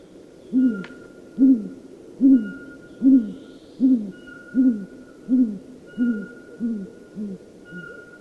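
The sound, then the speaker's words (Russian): A great grey owl gives a long series of about ten deep, evenly spaced hoots, steady at first and then gradually softening toward the end, with no voices. “Вот, пожалуйста, бородатая неясыть.”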